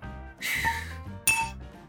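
Two bright glass clinks about a second apart, each with a short ringing tone that fades, like glassware knocking together while a drink is being poured; no one speaks.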